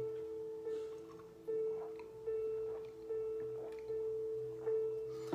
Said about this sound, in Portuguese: Separe desde já seu copo com água. Deixa eu beber um pouquinho da minha água aqui.